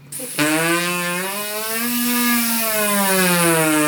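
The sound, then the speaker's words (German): A brass glissando: one loud, bright, sustained note that slides smoothly upward in pitch, then eases slightly back down, played alone with no talking. “Super Glissando.”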